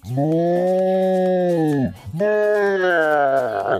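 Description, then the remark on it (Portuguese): A cow moos twice, two long, loud, droning calls, each lasting nearly two seconds with a brief pause between them and no talking. “Te vira, mas se livra dessa vaca e vamos gravar.”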